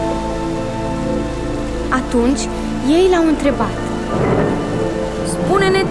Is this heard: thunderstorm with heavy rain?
yes